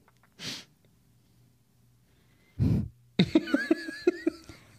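Two loud, breathy bursts of nose breathing blown into the microphone, a short hiss and then a heavier snort-like gust, followed by a stretch of bubbly laughter.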